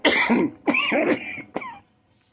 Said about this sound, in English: laughing, so I'm coughing really hard.